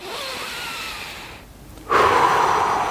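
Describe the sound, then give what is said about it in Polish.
A long, airy inhale fills the first second and a half, then a brief pause, followed by a stronger, fuller exhale that carries on steadily to the end. A deep, slow, calm breath drawn from the diaphragm rather than the chest. “głęboki, spokojny, duży oddech ze swojej przepony, nie z klapki piersiowej, tylko z przepony.”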